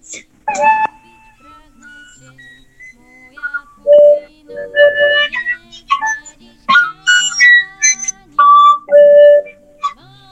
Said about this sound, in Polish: alikwotówka jest z czarnego bzu, to jest taka fujarka wielkopostna E,